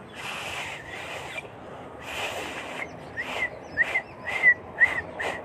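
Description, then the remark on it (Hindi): Someone whistles a catcall: a couple of airy, breathy blows give way to a run of short, thin, high whistle chirps, moderately loud, with no talking. “ना कि जाके छिचोरी हरकतें दिखाना आँख मारनी सीटी बजाना”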